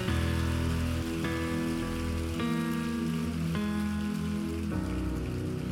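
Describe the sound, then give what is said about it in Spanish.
A dense, steady crowd applause fills the whole stretch, loud and continuous, with sustained musical chords shifting every second or so underneath. No one speaks. “No, no, no, no, si le vas a dar un aplauso, dáselo fuerte, dáselo fuerte.”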